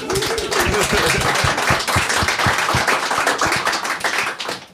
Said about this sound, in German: Geiler Call, Alter. Geiler Call. Mega. Applaus dafür, ey.